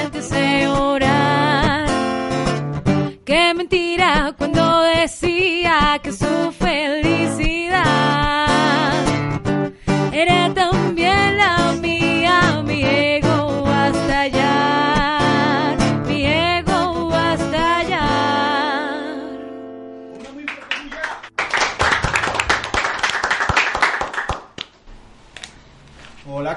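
A Spanish-language song sung by a woman plays loud over a full band with sharp percussive hits, fading out near the end before a brief burst of hissy, noisy sound.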